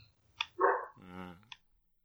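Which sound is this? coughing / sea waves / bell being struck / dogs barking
dogs barking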